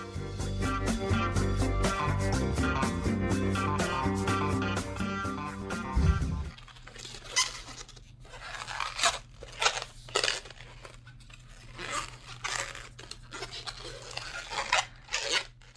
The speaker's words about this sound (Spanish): si les da ansia el sonido de, las manos y con, el látex de los globos, lo siento mucho.